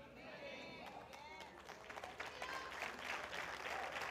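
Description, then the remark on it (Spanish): A church audience breaks into sustained applause, dense clapping that swells louder over a few seconds, with voices and cheers mixed into the crowd noise. “Si le daron un aplauso, diga amén, Señor, amén, amén.”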